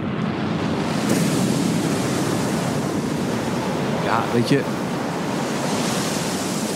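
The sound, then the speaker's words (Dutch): Loud, steady roar of crashing ocean waves in a film trailer fills the whole stretch, a dense surf wash with no pauses, while a voice briefly murmurs a few words underneath near the end. “Dit is het geluid van de, de, de, de trailer van Frozen 2.”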